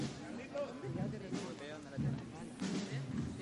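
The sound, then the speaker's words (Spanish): A dense crowd of many overlapping voices on the Paseo del Parque forms a steady, fairly loud murmur, with brief swells and faint bursts of applause from the attending spectators mixed into the chatter. “Son las voces que nos llegan desde el Paseo del Parque, aplausos también de los managueños que asisten”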